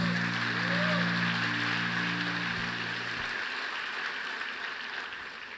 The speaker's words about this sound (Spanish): Dale un fuerte aplauso.